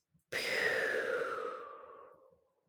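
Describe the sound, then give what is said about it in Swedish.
A long, deep exhale breathed out slowly and audibly during a relaxation breathing exercise, lasting about two seconds and gradually fading, with no talking. “Och andas ut.”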